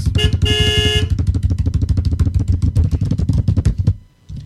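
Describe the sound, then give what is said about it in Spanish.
A small van's horn gives a loud, brief honk, then the sound gives way to a steady, rapid pulsing rumble, like an engine idling roughly, that lasts several seconds before fading out. “es momento, Cris, para cerrar este bloque, de que suenes el claxon de la camionetita”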